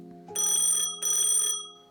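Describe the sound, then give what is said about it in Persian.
An office telephone rings with two quick bursts of bright, trilling electronic bell tone separated by a short gap, loud, with no voices. “تلفن زنگ می خورد.”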